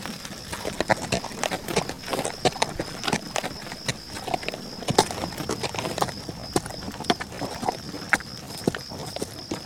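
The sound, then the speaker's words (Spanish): Steady clip-clop of donkey hooves walking on a hard surface as children travel by donkey to the village to deliver brooms, a brisk uneven rhythm of sharp knocks, with a faint high whine in the background and no talking. “Los chicos las entregan cada sábado en el pueblo, que está como a media hora de camino, en burro.”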